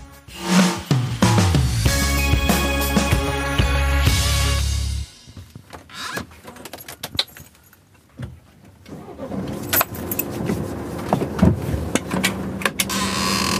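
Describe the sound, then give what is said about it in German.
The engine of a blue Sprinter van, called the Möwe Jonathan, cranks and starts with a rising roar and idles loudly for a few seconds. The sound drops as the van pulls away, leaving rumbling road and traffic noise with occasional clunks. The van drives daily to meeting points and sleeping places of homeless people in Munich. “Der blaue Sprinter fährt jeden Tag zu den Treffpunkten und Schlafplätzen der Münchner Obdachlosen.”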